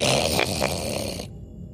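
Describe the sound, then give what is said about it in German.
A person voicing a creature called a Knurr growls like an animal: one rough, raspy, rumbling growl lasting just over a second, fairly loud, then cutting off abruptly into near silence. “Es schmerzt also vor allem beim Knurren.”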